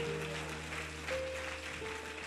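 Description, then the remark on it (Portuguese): An audience applauds to give glory to God, a steady, dense wash of clapping that carries on throughout, with sustained keyboard-like notes humming underneath. No one speaks. “Dá um glória a Deus bem forte aqui. Aplaude mesmo, aplaude.”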